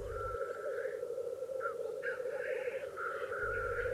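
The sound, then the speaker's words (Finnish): Lekking calls of competing male black grouse: a steady, bubbling cooing chorus that carries on without pause, heard from a distance, with occasional higher hissing notes rising above it. No one speaks. “Tavallisesti Teerien soininääntä pääsee kuuntelemaan aamutuimaan muutaman kilometrin päästä”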